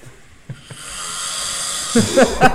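A person snores with one long, rasping, breathy inhale that swells steadily in loudness. A brief burst of voice breaks in right at the end.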